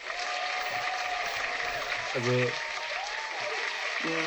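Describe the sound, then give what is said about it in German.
Steady, dense, angry applause fills the whole stretch, a continuous crackle of many hands clapping hard in resentment, while a voice briefly speaks over it twice. “Ja, Nicht so, man landet, äh, Hartz IV-mäßig vom Flugzeug applaudieren, sondern so richtig böse applaudieren.”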